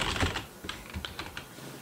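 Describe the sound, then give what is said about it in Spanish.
Typing on a mechanical keyboard: a quick, uneven run of crisp key clicks, moderately quiet, with no voices. “Preguntan que si uso teclado mecánico.”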